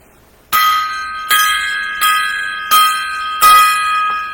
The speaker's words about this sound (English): Um, I three there were three legends uh, that passed away. Mm. Um and I'd like to give each other, each of them a five gong salute.